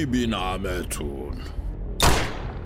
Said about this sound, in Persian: بلا فاصله من سه بار به دیوار روبروم شلیک کردم و اسلحه رو گذاشتم تو کمرم